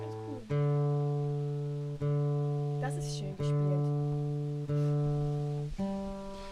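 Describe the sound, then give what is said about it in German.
An acoustic guitar is tuned, single low strings plucked and left ringing about every second and a half, the pitch nudged slightly between plucks. Clear, with a brief murmur of voices midway. “Da würde ich aber noch mal ganz kurz stimmen”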